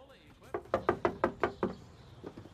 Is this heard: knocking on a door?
yes